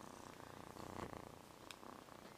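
A female cat purrs in a steady, continuous low rumble with rhythmic pulsing, quiet and uninterrupted, with no talking.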